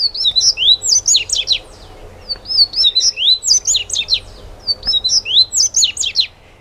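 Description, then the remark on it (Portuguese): A double-collared seedeater (coleirinho), a small bird, sings three quick, repeated phrases of bright, slurred whistles and sharp chirps, loud, with short pauses between each phrase. “Esse é o coleirinho.”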